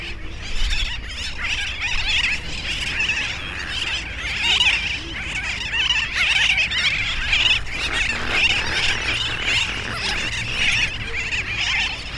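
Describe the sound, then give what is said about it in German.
A dense, noisy colony of terns, birds about 40 centimetres tall, heard from very close, with countless harsh, high-pitched calls overlapping into a continuous loud din that never pauses. “Und während man so staunt über den Anblick, äh, ist man dann auch schon fast taub geworden.”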